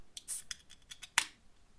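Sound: beer bottle being opened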